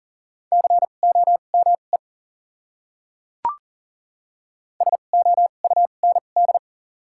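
Rapid Morse code beeps at a single steady pitch, sent at 40 words per minute with double character spacing and spelling common English words, keyed in short dots and longer dashes, come in two clear bursts separated by a sharp click and a pause. No voices.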